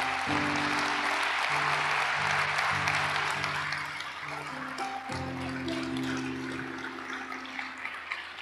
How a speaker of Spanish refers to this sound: Dígame amén, por favor. Y dé un aplauso a Dios, por favor.